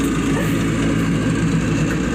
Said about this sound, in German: Ähm, bei mir wird jetzt gerade, ich weiß nicht, ob ihr es hört, ich hatte mein Mikro jetzt auch auf Mute, während du geredet hast, äh, Rasen gemäht mit einem Traktor. Äh, das ist sehr schlecht und er kommt jetzt direkt hier lang.